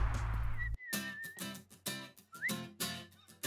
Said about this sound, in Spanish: ¿Ya escucharon? ¿Escucharon eso? ¿Saben de quién es ese canto de pajarito? Sí, de Camila.